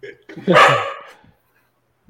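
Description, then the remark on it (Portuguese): A female dog lets out one loud, drawn-out bark, with brief bits of human voice just before it and a faint sound at the end. “Tem que pegar é. a cachorra.”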